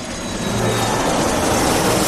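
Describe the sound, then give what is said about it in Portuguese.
An airplane taking off, a loud, steady roar of jet engines with a broad rushing hiss that swells slightly at the start and then holds constant, no voices present. “Por favor, coloque a sua cadeira na posição vertical, aperte o cinto e segure a sua bebida, pois a nossa aventura já vai decolar.”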